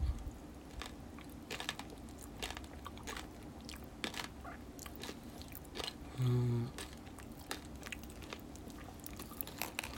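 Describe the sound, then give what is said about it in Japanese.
Wet, squishy chewing of a cola-flavoured chocolate with a lime gummy inside runs throughout, dotted with many sharp, irregular crackles and pops like fizzing candy bursting in the mouth. There is a brief low hum near the end. “コーラ風味のチョコの中にライムグミが入ってるそうですいただきますうんあパチパチしますねやっぱり。”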